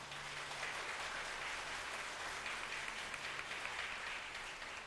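Steady, sustained applause from a crowd giving glory to God, a dense wash of many clapping hands holding an even level for the whole stretch, with no voices standing out above it.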